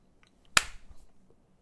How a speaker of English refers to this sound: You slap your hand on your stomach. No, I Mm, why would I slap my hand on my stomach? I do that.